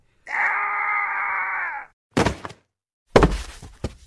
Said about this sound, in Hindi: अब नीति उनका फोन झपट रही थी और उसी चक्कर में वो सीढ़ी की एज पे खड़े ही थे और नीति का थोड़ा सा धक्का लगा कि वो सीधा सीढ़ियों से नीचे गिर गए